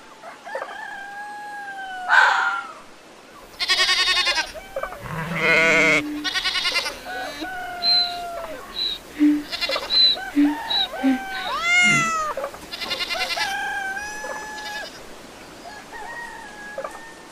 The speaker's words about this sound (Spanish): esta vez me he traído la granja a la playa. Hoy vamos a hablar de animales